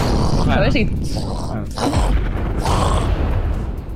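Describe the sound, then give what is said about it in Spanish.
A voice imitates an explosion with a loud, rough, sustained rumbling blast that keeps roaring for several seconds, heavy, with breathy vocal swoops rising through the noise. “por ejemplo, que pongan el hashtag y hago una explosión.”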